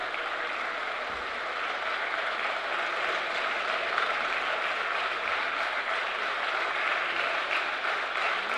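Sustained applause in the Italian Senate as Liliana Segre finishes presiding, a dense steady wash of many hands clapping at an even, fairly loud level for the whole stretch, with no voices standing out.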